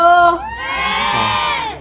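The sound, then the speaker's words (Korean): A loud burst of crowd cheering from an audience with children, high-pitched shouts and whoops sustained for a couple of seconds with dense overlapping voices, energetic, in hot weather, as they call for a live song. “많은 분들이 우리 애기들이 원하네요.”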